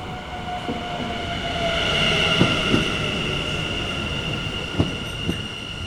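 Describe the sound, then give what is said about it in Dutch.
A train rumbles steadily through Muidenpoortstation with high metallic wheel squeal ringing over it and a few sharp clanks of the cars passing over track joints; no one speaks. “Ik sprak Serge op het station en de treinen zijn soms zeer duidelijk hoorbaar.”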